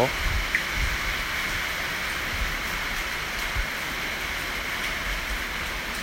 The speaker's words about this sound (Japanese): はいなんかねもうすごいでしょうこの雨の音台風がね来てるらしいですよ